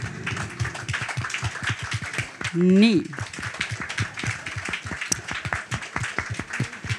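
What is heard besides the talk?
audience applause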